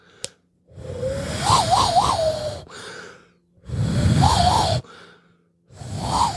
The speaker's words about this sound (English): And the first thing he knew how to do was this whistle thing with his hands like this.